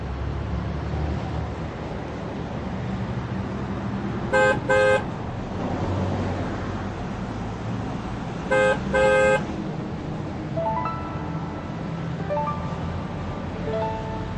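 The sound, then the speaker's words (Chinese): A coach bus pulls away from a long-distance bus station over a steady low engine rumble, sounding two pairs of short, blaring horn honks, one around the middle and another a few seconds later, with faint higher tones trailing at the end. “芮小丹把提包递给丁元英，看着他到座位坐下，目送着客车驶离长途汽车站。”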